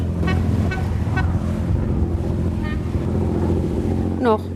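A lobster-fishing boat's diesel engine drones loudly and steadily as it heads out to sea in the pre-dawn dark, a deep continuous rumble, with a few brief high-pitched chirping calls cutting in over it.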